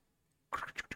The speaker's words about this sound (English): I actually forgot to grab my dice. That's the sound of the dice.